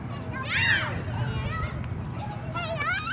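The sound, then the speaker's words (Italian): Orphan children at play, with high-pitched shouts and excited calls rising and falling over a steady low background rumble, several young voices overlapping in a lively, busy scene. “Immaginate, o meglio, ascoltate i giochi di questi bambini.”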